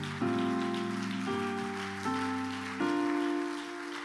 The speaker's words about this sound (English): Now give the Lord a great hand clap of praise.